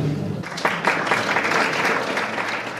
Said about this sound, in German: Wow, auf diesen Applaus und diese Ehrung bin ich stolz wie Bolle und freue mich, als Bester in der Kategorie Rundfunk und TV aus Deutschland ausgezeichnet worden zu sein.